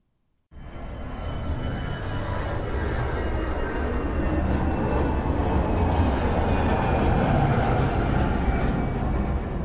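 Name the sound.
airplane flying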